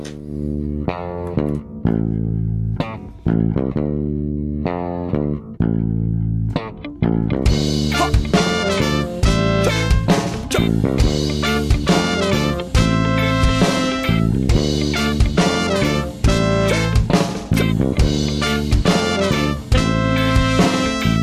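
A recorded song's instrumental intro plays loudly and steadily, opening with a sparse melodic line before a fuller, brighter band sound kicks in partway through. No one speaks.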